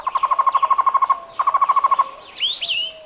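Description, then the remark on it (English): A Cuban trogon (tocororo) song of rapid, evenly repeated hooting notes in two quick series, followed by a rising, warbling call, clear with no voices. “Its song sounds like its Spanish name, tocororo.”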